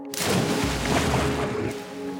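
A loud splash as a boy jumps into a swimming pool, a sudden burst followed by about two seconds of rushing, churning water, with no voices.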